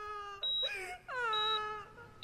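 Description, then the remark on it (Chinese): Several women crying loudly in a corridor, two long, drawn-out wailing sobs with high, wavering pitch that slides downward, the second cry longer than the first, with no talking. “楼道安静了三秒，然后是更激烈的哭声。”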